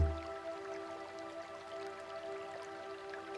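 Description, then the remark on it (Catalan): Water dripping softly and irregularly over a steady low electrical hum, quiet, with no voices. “Aquesta percepció de l'aigua produeix un meravellós poder curatiu.”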